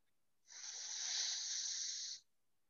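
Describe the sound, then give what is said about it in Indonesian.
A single steady inhale through the right nostril during an alternate-nostril breathing exercise, a hissy airy rush lasting nearly two seconds with an abrupt start and stop, heard alone without any talking. “Inhale kanan.”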